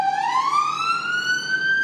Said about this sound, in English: There's a symbolic, there's a symbolic siren going on. Siren going by for an ambulance in the background.